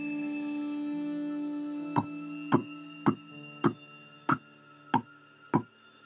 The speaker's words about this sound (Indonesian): Kira-kira seperti itu bunyinya seperti suara langkah kaki yang sedang berlari.